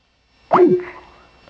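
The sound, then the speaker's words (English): A single water-drop notification sound, a quick bright plop with a sliding pitch and a short ringing tail, heard clearly and alone with no talking. “I heard that drop water Some, thing.”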